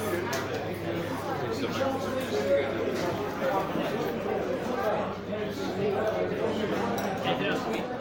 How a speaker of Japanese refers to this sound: これはあのビアフェスじゃなくて私のうちのすごく近所にあるあのパブに日曜日の昼間に行った音なんですけれどもパブといっても、えー、色はい本当に斜め前にあるあの地元のパブなんですけれども